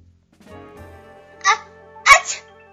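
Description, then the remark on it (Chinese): A voice acts out a sneeze: a soft, drawn-out breathy build-up, a short hissy burst, then a sharper, louder explosive "choo" at the end. “大蛋糕刚刚化好妆，坐到餐桌上，就忍不住打了个喷嚏。”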